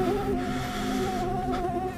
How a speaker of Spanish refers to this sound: Mientras una mosca le acecha el rostro.